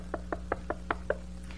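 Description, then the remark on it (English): Six quick, evenly spaced knocks rap on a glass door, moderately loud, over a steady low hum in the background. “But then they started knocking.”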